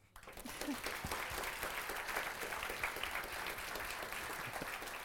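A crowd bursts into sustained applause, dense clapping that starts abruptly and continues steadily at a fairly loud level for several seconds, with no one speaking over it.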